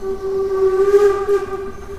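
A Brockenbahn steam locomotive, running since 1899, climbs through the forest up the Brocken mountain and blows its whistle: one long, steady, loud note that holds for the full two seconds over a low rumbling background, with no voices.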